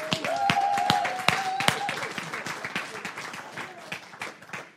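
An audience breaks into applause for a three-person panel introduced for a discussion: dense overlapping claps with a few sharper individual claps standing out, fading slightly over about five seconds, with a brief sustained tone and faint voices early on.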